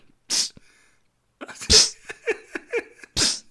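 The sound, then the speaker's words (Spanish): A voice imitates the spray puff of an Ambipur automatic air freshener that sprayed every five minutes, with three sharp, breathy hisses spaced out across a few seconds, and brief voiced murmurs and chuckles between the later bursts. “Y luego era una maquinita de esta de Ambipur que cada cinco minutos me.”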